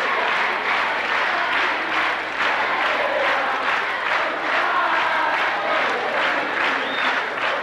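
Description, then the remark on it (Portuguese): A large crowd in the galleries of Brazil's Congress applauds and cheers continuously as Itamar arrives for his swearing-in as President of the Republic in 1992, a dense wash of clapping with voices rising and falling in waves. “que a gente conclui com a forma que Itamar foi recebido pelas galerias do Congresso ao chegar para seu juramento como presidente da República, em 1992.”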